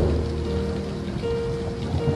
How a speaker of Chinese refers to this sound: 这几天老是下雨，天气也变得潮湿起来。